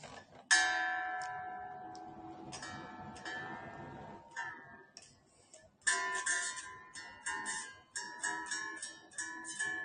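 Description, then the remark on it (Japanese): Guitar strings being tuned with a tuner before playing: single plucked notes ring out and decay, some struck repeatedly in quick succession, with bright harmonic overtones and pauses between plucks. No one speaks. “では、1曲目、聴いてください。チューニングです。”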